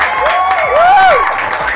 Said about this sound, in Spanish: Ay, los aplausos, los aplausos. Muy bien, sí, hay muchos aplausos, hay muchos aplausos.